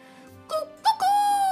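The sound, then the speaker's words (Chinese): A rooster crows in a rising, multi-part call: two short bursts, then one long held note with a bright, harsh, strained tone, loud and with no talk over it. “鸡叫了第一遍了。”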